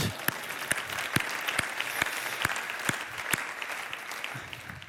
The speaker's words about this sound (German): Aber weißt du, ja, das finde ich auch einen Applaus wert, das stimmt.